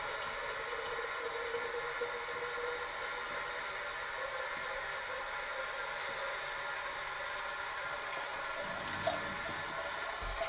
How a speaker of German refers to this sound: Das heißt, ich gehe jetzt her, nehme die Teekanne, fülle, fülle diese mit Wasser So, jetzt fülle ich die vier Kannen Wasser.